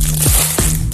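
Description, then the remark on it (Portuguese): A package being opened, with three loud, crinkly crushing bursts at roughly even intervals over a steady background hiss. No one speaks. “Então, eu penso que será um pacote a abrir, uma embalagem.”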